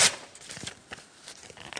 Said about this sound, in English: I took those pieces of paper that were in my Bible, tore them up